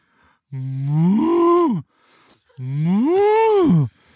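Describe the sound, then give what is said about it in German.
A person imitates a cow, giving two long, drawn-out moos with rising and falling pitch, separated by a short pause, fairly loud with no other talk. “Sag mal, mach mal eine Kuh.”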